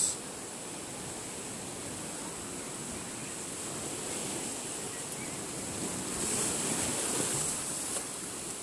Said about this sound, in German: Sie schlägt ungetüm gegen die Felsen, bahnt sich ihren Weg, Welle um Welle, in die Tiefe des Gesteins und vielleicht auch in die Tiefe meines Herzens und Bewusstseins.